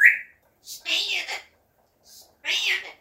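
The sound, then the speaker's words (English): A female pet talking bird named Mummy squawks: a sharp high chirp, then two raspy, speech-like bursts separated by a short pause. “I have a bird, Mummy. She talks a lot.”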